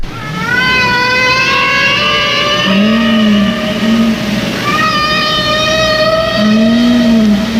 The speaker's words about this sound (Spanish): Si suenan las ballenas jorobadas. La verdad es que es hipnótico, ¿eh? te puedes quedar escuchando esto durante minutos y minutos. Y este sonido ahora sabemos que solo se puede dar en ese límite de los primeros 100 metros